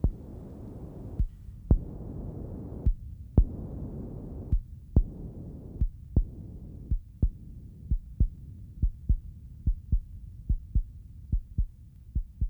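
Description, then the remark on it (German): An artificial heart beats mechanically, thumping steadily over a low droning hum, sharp regular beats that quicken and come closer together as it goes on, with no voices. “Aber ich bitte Sie, Sie leben und haben ein künstliches Herz.”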